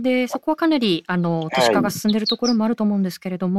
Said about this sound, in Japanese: あの相変わらず鳥の声がのどかに聞こえてくるんですけれども